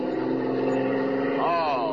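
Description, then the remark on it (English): A fast car's engine roars loudly and steadily, then its pitch swoops and climbs as the car speeds off, continuous for the whole stretch. “All right, your car is fast, but Superman is faster.”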